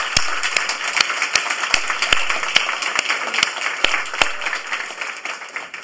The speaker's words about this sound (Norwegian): Gi dem en applaus først, selvfølgelig.